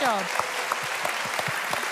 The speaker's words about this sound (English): Can I just have a big round of a cheer for the children? They've done a fantastic